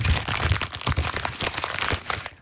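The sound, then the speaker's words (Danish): A child's candy bag crinkles continuously for a couple of seconds in a cinema during a film, dense irregular plastic rustling and crackling with no talking over it. “og så sidder hun med den her slikpose, som lyder sådan her.”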